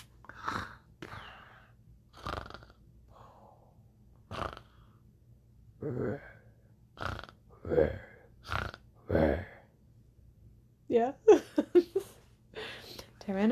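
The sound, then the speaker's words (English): A voice imitates a sleeping Tyrannosaurus snoring with a series of loud, rough, growly snorts and gasps, spaced irregularly and ending in a rapid burst of squeaky, wheezing breaths. “How do you think a Tyrannosaurus snores?”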